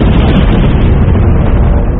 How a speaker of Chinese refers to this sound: 这时候后方的山洞当中突然传来了爆炸声